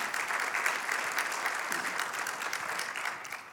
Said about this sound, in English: Yeah, let's cheer that on.